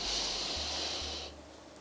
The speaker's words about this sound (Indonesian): Makanya sensasi luar biasa termasuk jantung berdebar, ya kan, berkeringat, anggota badan berdebar itu harus kita kondisikan dengan ambil nafas panjang. Lewat hidung